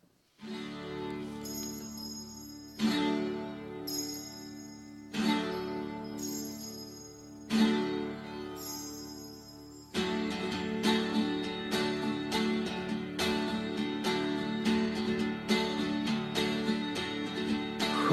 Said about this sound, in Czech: No, dobře, tak my si teď zase dáme krátkou písničku a pak se ještě dostaneme k dalším zemím, jak se daří i jim na západní frontě.